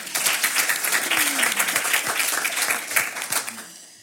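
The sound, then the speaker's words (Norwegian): An audience breaks into sustained applause, a dense wash of many hands clapping at steady loudness for several seconds before starting to thin out at the end. “Og de kunne ikke være her i kveld, men de fortjener en applaus likefrem.”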